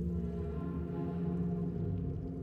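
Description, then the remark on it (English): A strange, eerie whooshing sound effect, a low, resonant droning swell that holds steady and fairly loud for a couple of seconds, with no voices. “whoosh, just a real strange whooshing sound.”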